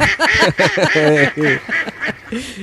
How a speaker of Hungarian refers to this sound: A véleményét a kacsakórus mondja el.